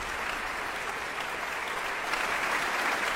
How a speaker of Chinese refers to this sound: 下面让我们再次用热烈的掌声欢迎指挥家。丹尼尔·巴伦博伊姆，这是他第三次执棒维也纳新年音乐会。